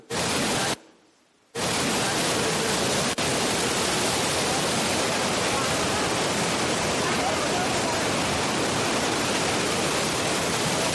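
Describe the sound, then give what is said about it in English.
A loud, steady roar of the rushing floodwater of the Jordan River during flood season fills the scene, dense and unbroken, apart from a brief cut to near silence in the first couple of seconds. “This is actually the Jordan River during flood season and freeze frame.”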